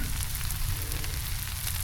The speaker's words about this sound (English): In the midst of perfectly cooked bacon. You can still hear it sizzling. And that's good, because that means there's more bacon coming.